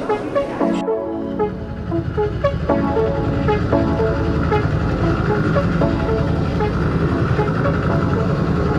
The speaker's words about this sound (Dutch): Het geluid van een helikopter. Een beetje dreigend geluid. En we kijken naar een eh, video waarin we heel dichtbij uitzicht hebben op het eh, vrijheidsbeeld. Die helikopter cirkelt eigenlijk om het vrijheidsbeeld heen.